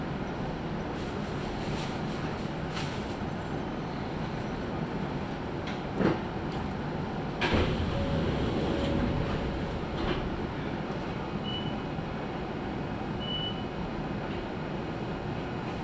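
A local electric train of the Izuhakone Railway Daiyuzan Line rumbles steadily with a broad low roar, broken by a sharp clank and a louder jolt of brake noise as it slows, then a thin high whine as it settles.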